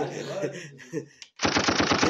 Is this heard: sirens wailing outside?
no